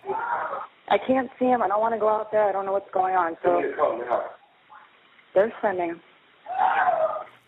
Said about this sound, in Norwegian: Skrikene høres i bakgrunnen mens hun snakker med politiet.